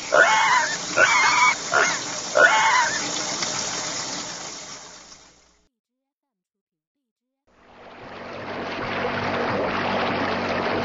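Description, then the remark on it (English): A pig, the pig on a bike in the picture book Go, Animals, Go!, oinks and grunts loudly in four snorty bursts in quick succession over a rough background, followed by silence and then a steady rushing, engine-like noise. “The pig is on a bike.”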